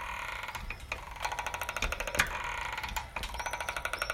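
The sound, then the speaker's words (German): A gate squeaks as it is moved, a sustained creaking whine with a rapid, ratchet-like rhythm of scraping pulses and a few sharper clicks, with no voices. “Ähm, jetzt durch das Tor hier quietscht das.”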